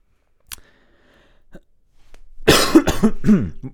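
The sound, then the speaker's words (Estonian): A quiet click early on, then a burst of loud, harsh coughing: several rapid, raspy coughs in a row, with no speech. “mulle juba meeldib, kuidas ainukesed valjud osad sinu kõnest on köhimine lihtsalt”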